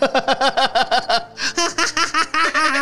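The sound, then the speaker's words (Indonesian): A voice imitates the laughing call of a kookaburra, a bird from Australia: a rapid string of rhythmic, bouncing hoots that rise into a louder, chattering cackle, clear for about three seconds. “itu seperti suara tertawanya burung kokabura.”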